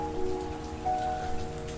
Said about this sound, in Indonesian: Kapan hujan reda? Banyak keindahan yang bersembunyi dirintikan setelahnya.